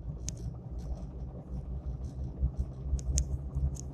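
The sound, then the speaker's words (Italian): A car engine runs roughly with a heavy, uneven low rumble that throbs and surges, punctuated by faint high ticking or squealing notes, heard from inside the vehicle with no talking. “Scusate, ma la macchina sta andando veramente strano, anche il rumore.”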